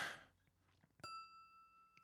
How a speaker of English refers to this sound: something that actually not everyone knows, and I didn't know this for a long time, is that the bell on top actually works. It actually works. Let me, let me grab the bottle.